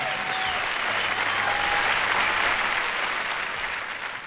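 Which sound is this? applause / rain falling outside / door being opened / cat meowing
applause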